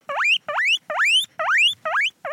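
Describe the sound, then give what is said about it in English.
A series of six rising, high-pitched squeals from a female animal trained to call for food at the sound of vegetables being cut, each about a third of a second long, repeated in a steady rhythm. Loud, with no talking. “So she thought that she will be fed, and she called for for meal and we trained her and then uh, tried to cause uh, uh, her uh, squealing, uh, optimistic squealing sounds this way.”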